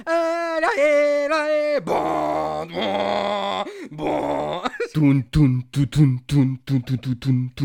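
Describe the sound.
A single voice mimics a grand orchestral film score, with sustained droning tones giving way to punchy, rhythmic staccato bursts like pounding brass hits, loud.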